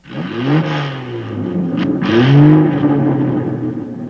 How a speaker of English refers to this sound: And then there's this revving car noise uh, with subtitles.